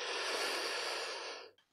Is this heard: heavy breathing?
yes